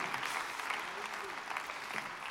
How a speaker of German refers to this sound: Komm, einen großen Applaus, ganz mega gut gemacht.